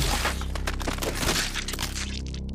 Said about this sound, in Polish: Robię zamach kijem. W ostatniej chwili zamykam oczy, żeby nie widzieć, jak zakręcony pręt uderza ją w skroń. Słyszę tylko chrupot pękających kości czaszki.